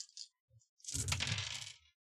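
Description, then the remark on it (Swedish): A few light clicks, then dice clatter and tumble across a hard tabletop for about a second before settling, fairly loud, with no voices. The dice are rolled for mobility in a game. “Jag vet inte vad för åkomma än, men jag slår för rörlighet.”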